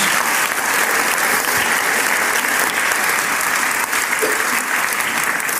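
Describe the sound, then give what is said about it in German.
Sustained audience applause welcoming a guest fills the space, a dense, steady wash of many hands clapping at a loud, even level throughout, with no voices standing out. “gebe dir doch einen Applaus.”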